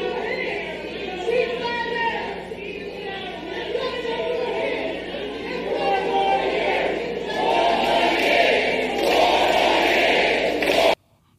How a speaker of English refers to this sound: Yeah, now all these people there now screaming uh, four more years for uh, Beijing Biden, his supporters there.